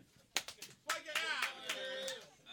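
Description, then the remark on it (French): A few scattered hand claps from an audience ring out briefly, then give way to raised voices and cheering that carry on fairly loud. “Par applaudissement, ceux qui vont être obligés de s'excuser à cause qu'ils ont applaudi parce que c'est offensant pour les Irlandais.”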